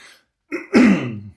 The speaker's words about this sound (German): Entschuldigung, da muss ich mich mal kurz räuspern.